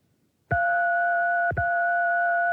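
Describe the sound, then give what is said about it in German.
A steady two-note telephone keypad beep for the digit two sounds loudly, briefly cutting out once before resuming, as if the key is pressed twice in quick succession. No one speaks. “das war jetzt die sechste? Und jetzt kommt die zweite.”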